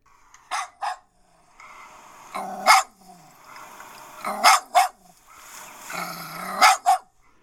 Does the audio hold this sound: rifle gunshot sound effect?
no